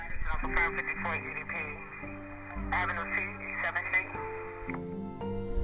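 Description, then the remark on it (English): Police radio scanner dispatch chatter from the New York Police Department general assignments line: thin, band-limited voices speaking continuously through a crackly channel at steady loudness, with a faint tonal hum running underneath. “Uh, you know, all of these issues that are that are cropping up uh, on the general assignments line of the New York Police Department.”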